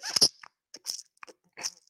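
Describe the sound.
A voice imitates shoes soaked during a 40-minute walk in torrential rain squelching, making about five wet, crunchy, hissing bursts in an uneven rhythm, each short and fairly loud, with brief silences between them.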